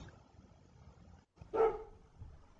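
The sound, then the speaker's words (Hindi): A single sharp bark from a stray dog rings out once in a deserted street, against a quiet background with a low murmur and a brief moment of silence just before it. No one speaks. “कुछ आवारा कुत्तों के अलावा गली पूरी सुनसान पड़ी थी”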